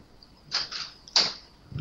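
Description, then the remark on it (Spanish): A few sharp keyboard clacks land irregularly, fairly crisp, with a quieter rustle at the end and no voices. “Me encanta la introducción con teclado”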